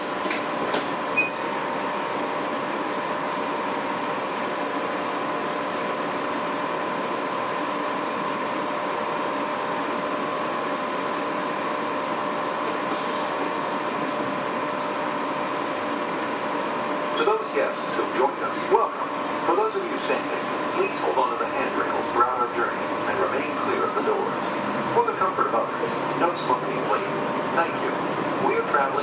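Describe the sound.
A Disney monorail train cruises between stations toward the Polynesian Resort with a steady droning hum and a faint electric whine, joined later by light rattles and bumps, with indistinct voices murmuring in the cabin.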